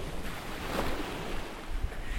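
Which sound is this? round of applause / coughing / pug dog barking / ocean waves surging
ocean waves surging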